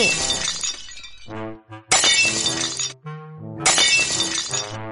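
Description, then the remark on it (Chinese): Three loud crashes of plates shattering onto the floor, each a sharp bright burst followed by ringing, tinkling shards as pieces settle, spaced about a second apart with no voices. “老鼠爬上灶台，鸭子躲进水桶，鸽子胡乱扑腾，盘子碎了一地。”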